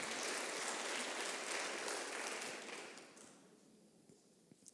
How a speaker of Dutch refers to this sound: Hey, dan, wil ik, dan wil ik nog een applaus voor het laatste team wat we vanavond gaan horen. En dat is op naar Ultiem.